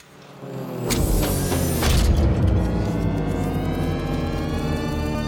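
household object, studio door opening

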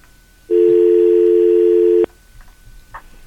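signal or alarm, telephone line ringing

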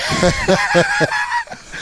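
sound effect, chicken clucking sound effect

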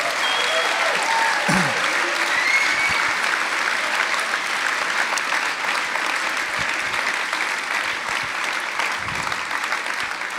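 crowd, audience applause

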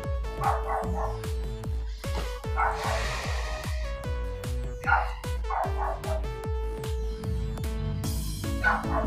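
animal, small dog barking

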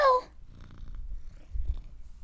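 animal, cat purring

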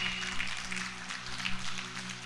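crowd, audience applauding

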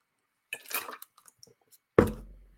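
food or drink, sipping water

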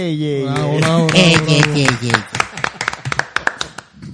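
crowd, applause

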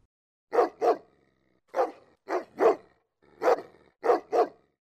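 animal, dog barking

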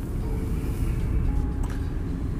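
vehicle, car interior road noise

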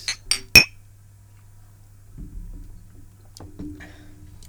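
household object, glasses clinking

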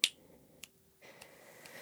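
human body sound, finger snapping

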